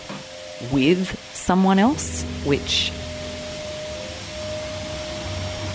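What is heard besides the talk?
vacuum cleaner running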